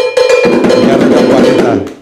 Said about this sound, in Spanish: Y eso... no, eso hay que darle campana.